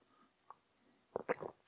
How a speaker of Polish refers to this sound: Łyknę herbatki.